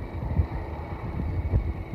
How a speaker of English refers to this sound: And the crowds are thick and dense here coming through, uh, I suppose, what is downtown Croydon, and all the time the little car put puts away happily for herself.